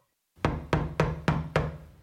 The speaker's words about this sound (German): Ein lautes Klopfen reißt Hastings aus seinen Gedanken.